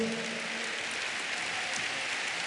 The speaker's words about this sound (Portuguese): Aplauda com força ao Senhor.